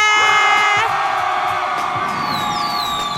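A crowd of relatives roars loudly in answer to 'are you ready' during a Lunar New Year segment of the radio show Lee Eun-ji's Gayo Gwangjang, with sustained cheering, whoops and high-pitched yells blending into a dense, continuous wall of excited shouting.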